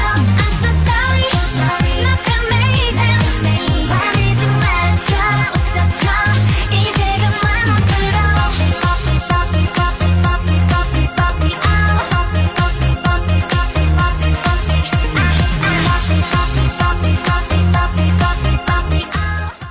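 A K-pop girl group song plays loud and close, an upbeat dance track with a steady pounding beat and dense synth layers running continuously for the whole stretch.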